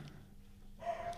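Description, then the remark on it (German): A dog gives a short, faint bark or yip near the end against a quiet background hum. No one speaks. “Oh, und der Hund.”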